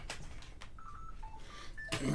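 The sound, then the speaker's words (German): A telephone being hung up: a few sharp clicks, a short run of soft electronic beeps, then a louder handset clunk at the end over low background noise. “Jetzt warte mal, ich muss hier mal das Telefon aufstecken.”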